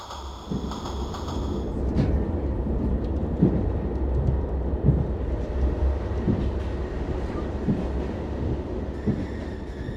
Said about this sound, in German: Ich sitze wieder einmal im Zug von Frankfurt nach Augsburg.